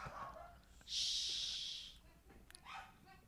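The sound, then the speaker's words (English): A dog, Chowder, snorts and pants excitedly, with a long breathy huff in the middle and shorter snuffling breaths around it. “Oh, and her dog, Chowder.”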